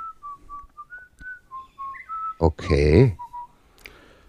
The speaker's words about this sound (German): Du hörst ein Pfeifen im Hintergrund, äh, das dich darauf hinweist, dass du dich beeilen musst.